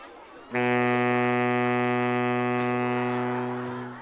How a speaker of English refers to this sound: It's the sound it makes. Sorry, the sound. Yeah, when I blow out of the left side, it makes this sound